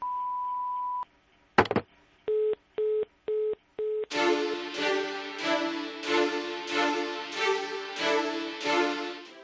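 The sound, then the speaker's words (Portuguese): A steady electronic voicemail beep, a short burst of noise, then four evenly spaced mid-pitched telephone tones, followed by a loud, rhythmic musical jingle with repeating bright hits. “Oi, eu não posso atender agora, mas deixa o seu recado depois do bip.”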